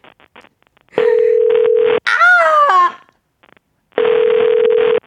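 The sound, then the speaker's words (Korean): A phone ringback tone sounds in two steady one-second bursts separated by a pause, with a short exclaimed voice in the gap between them; a call placed to a listener goes unanswered. “어, 아쉽게도 전화가 되지 않았습니다, 여러분.”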